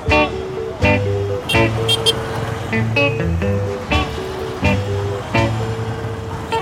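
Busy street traffic in Goma with a stream of red motorcycle taxis heading toward the speaker: a steady, loud engine drone punctuated by frequent short horn toots and beeps, some overlapping, with faint voices mixed in.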